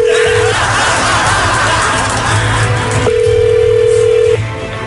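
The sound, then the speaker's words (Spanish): A telephone call being placed to someone's brother: a steady mid-pitched line tone sounds briefly, then returns for over a second, over a constant bed of crowd noise and murmuring. “Esto, eh, cuando hacemos esto cae bien facilito y menos de un minuto, que vamos a marcarle a tu, a tu hermano,”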